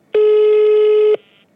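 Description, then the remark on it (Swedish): A single loud telephone ringing tone as a phone call is placed, one steady buzzing pitch lasting about a second, starting and stopping abruptly, with no voices around it. “Ja, och nu ringer vi och kollar vad är det som gäller.”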